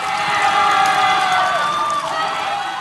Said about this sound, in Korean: 그러자 반석에서 물이 솟아나오기 시작했죠. 백성들은 환호했습니다.